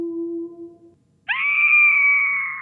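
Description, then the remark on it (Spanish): A woman's scream sound effect, made on a computer for a horror film as a murdered woman's scream: a loud, high, sustained shriek holding steady for over a second, preceded by a brief low droning tone and a short silence. “La asesinada.”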